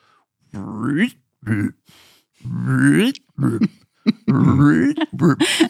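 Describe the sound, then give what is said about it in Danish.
A voice imitates reel-to-reel tape being run back and forth: a string of gravelly, warbling bursts that swoop up and down in pitch, fairly loud, with short gaps between. “står lille …, to år gammel, foran den her spolebåndoptager, og kører de her bånd frem og tilbage, så de laver den her lyd”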